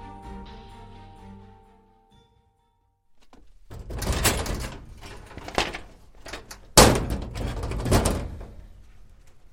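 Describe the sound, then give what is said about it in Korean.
Soft music fades into a short silence, then the director pulls open a cabinet to take out residents' records, with scraping, rattling clatter and shuffling, punctuated by a couple of sharp, loud metallic bangs. No one speaks. “캐비닛에서 원생 기록을 꺼내 뒤적거리던 원장이 고개를 들었다.”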